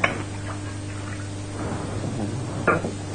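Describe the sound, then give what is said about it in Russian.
Steady water splashes as hands are rinsed under a running stream, washed without a blessing, with a low background hum and a couple of sharp clunks at the start and near the end. “Ну, теперь надо мыть руки без брахи.”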